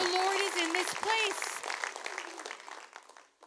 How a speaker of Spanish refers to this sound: Junta sus dos manos, dile un aplauso al Señor en esta mañana. El Señor está en este lugar.